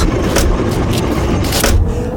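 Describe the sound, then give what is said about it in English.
People climbing into a car: a few muffled thumps and rustling bursts over a steady low rumble, fairly loud, with no talking. “We're out of range. Get in the car.”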